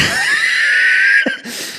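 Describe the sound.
A voice imitates heavy, out-of-breath panting as after only three steps: a long, loud, wheezy exhale, a brief catch, then a sharp gasping breath, with no talking.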